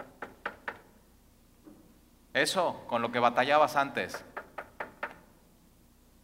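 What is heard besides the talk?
knocking on a door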